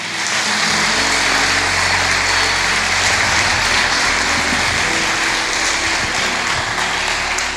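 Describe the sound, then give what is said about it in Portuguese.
An audience applauds Jesus steadily for several seconds, a dense, even wash of clapping, with a low sustained hum underneath and no voices. “Pode aplaudir Jesus aí.”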